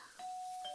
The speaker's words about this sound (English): That's the doorbell, honey.